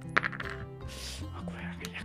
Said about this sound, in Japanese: これが難しいね。こうなんかゴムの板みたいなところに今投げてるんですよ。この、あ、そここのちょっと、このコイントレーに、こうカチャっていうのがあんまりなくて、この、落ちるっていう